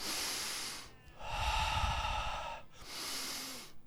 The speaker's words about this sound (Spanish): Ah, ¿Sabes qué estoy haciendo? Respirando hondo.